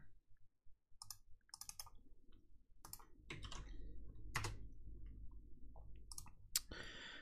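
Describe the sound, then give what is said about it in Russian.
Someone types a note on a computer keyboard in short, irregular bursts of clicking keystrokes, fairly quiet, over a low steady background hum with no talking. “Сейчас запишем себе.”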